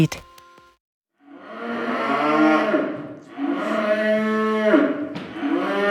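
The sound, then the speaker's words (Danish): Calves moo loudly in two long, drawn-out calls, one after the other, calling for their mothers out with the herd, with a brief click and a short pause before the first. “Øh, ja, men det tror jeg mest bare fordi, at de kalder på dem, der går derude.”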